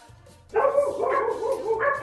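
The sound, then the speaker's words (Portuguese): Dogs bark loudly after a brief quiet moment, a rapid, overlapping run of yapping barks that carries on steadily to the end. “É isso, véio, até, até, seus cachorros, até seus cachorros aí tá, tá, tá concordando.”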